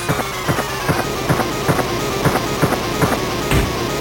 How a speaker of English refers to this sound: Um, that's a shotgun. It's not a very good one, but shotgun. Super muted.